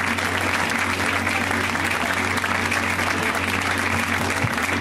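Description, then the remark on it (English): A smattering of audience applause at a comedy show as a comedian is brought on stage, a steady patter of clapping that holds at an even level for about five seconds, mixed with low room hum. “All right, I heard that smattering of applause, so let's not try that again.”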